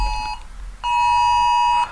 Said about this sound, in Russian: Это звук, который говорит о том, что это экстренное оповещение на айфонах, которое ты отключить никак не можешь никаким образом. И вот этот звук я первый раз услышал в Штатах, потому что в России такое не работает.